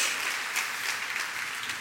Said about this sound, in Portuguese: Pode dar uma salva de palmas sim ao Senhor. Glória a Deus, glória a Deus, glória a Deus.